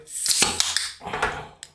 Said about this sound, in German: Richtig schön nah am Mikro einschenken.